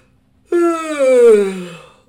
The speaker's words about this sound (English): I'm about to yawn.